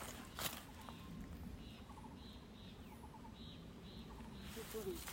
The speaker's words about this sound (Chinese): 哇，这是中杜鹃吗？